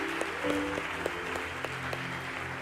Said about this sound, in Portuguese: Vamos aplaudir quem está em casa, pessoal, bem forte.